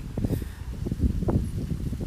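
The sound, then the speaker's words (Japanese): A waterfall rushes steadily in the background, a continuous low rumbling wash of water with uneven surges and splashes, moderately loud, with no voices. “なんだろうなこういう滝の音とか聞きながらね ちょっとぼーっとしてみるこれ滝だから滝なの滝の音だよ滝の音とか聞きながらぼーっとしてみるとかね”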